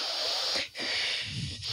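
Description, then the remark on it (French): A 3-year-old child draws a deep, airy breath in and then pushes it out as a calming breathing technique. The breathing is loud, with a brief pause between the long breathy inhale and the steady exhale. No talking. “Et euh, puis la technique qui fonctionne dans l'immédiat puis que mon enfant de 3 ans est capable d'effectuer, c'est la respiration.”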